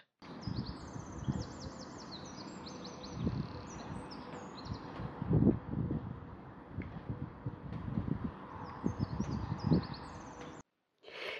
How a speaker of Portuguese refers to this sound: Este pássaro esteve a cantar na minha janela durante mais de uma hora.